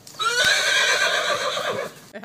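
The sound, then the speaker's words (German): A horse neighs loudly, one long shrill whinny with a wavering, quivering pitch lasting about two seconds before breaking off into a short snort. “das war ein Pferd.”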